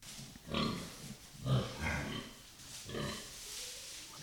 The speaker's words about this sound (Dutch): Nou, zoals jullie horen eh, staan we in de stal.